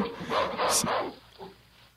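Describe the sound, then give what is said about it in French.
A dog gives a short run of fairly loud barks with a yelping edge, then a softer final yip as the sound fades out. “Voilà, Je pensais Sinon... que un cri d'un chien, man.”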